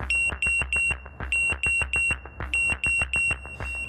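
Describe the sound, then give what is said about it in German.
A train safety system's collision warning alarm, triggered when two trains head toward each other on a single-track line, sounds in rapid groups of three shrill, high electronic beeps, repeating loudly and insistently with no voices present. “Die Züge reden quasi ständig miteinander und wenn zwei Züge auf einer eingleisigen Strecke aufeinander zufahren, dann schlägt das System Alarm.”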